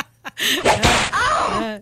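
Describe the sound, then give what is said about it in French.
A sharp whip lash cracks loudly, with a second snap right after, mixed with a strained, groaning voice crying out around the strikes, from a flagellation clip. “On a un extrait de flagellation de Puce DI ici.”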